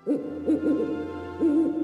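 A little owl hoots in short, mellow, rising-and-falling calls: three quick ones in a row, a brief pause, then a longer, steadier hoot. No voices.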